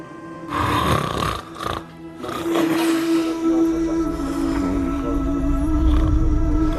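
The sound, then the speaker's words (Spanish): A man snoring loudly, long rasping breaths with a low droning rumble that rises and falls for several seconds, no talking. “Esos ronquidos son de”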